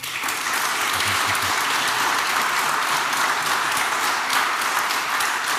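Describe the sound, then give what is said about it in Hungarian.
A large audience applauds steadily, a dense, sustained wash of many hands clapping at once, loud, with no one speaking over it, giving applause to both parliamentary candidates at the end of a debate. “Szeretnék kérni a közönség soréból egy nagy tapsot mindkét képviselőjelöltnek.”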